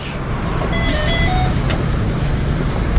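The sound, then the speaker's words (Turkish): A metrobus idles with a steady low engine rumble and broad hiss, while a pitched electronic beep tone sounds for about a second, followed by a brief sharp clack. No one speaks. “Zavallı Drakula bütün bunlar yetmezmiş gibi metrobüse binmek gibi bir hata da yapar.”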